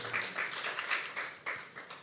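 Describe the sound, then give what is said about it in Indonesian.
A crowd at a Christian sermon claps together for the Lord Jesus in a steady, continuous burst of applause, fairly loud and sustained for a couple of seconds with no voices over it. “Beri tepuk tangan buat Tuhan Yesus.”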